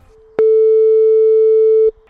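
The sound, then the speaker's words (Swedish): A single loud, steady telephone ringing tone sounds for about a second and a half, a clear electronic hum heard alone with quiet before and after, as a phone call is being placed. “får du vara lite tyst här nu när vi ringer.”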